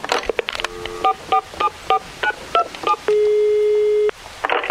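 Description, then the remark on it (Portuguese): Someone dialing a telephone: a quick, evenly paced run of about eight keypad beeps, each a short two-note tone, followed by one steady held tone lasting about a second, clear with no talking. “Dá esse telefone aqui que eu mesmo ligo, vai, meu.”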